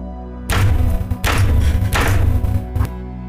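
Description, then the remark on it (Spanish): Three heavy, booming knocks on a door land at a steady pace, each deep and loud with a lingering rumble, followed by a brief softer thud. No voices are present. “Cuando lo terminamos de pronunciar en voz alta, se escucharon nuevamente tres golpes sobre la puerta pero esta vez sonaron con gran fuerza y tan repentinamente que todos soltamos el vaso del oráculo a la vez para voltear hacia la puerta.”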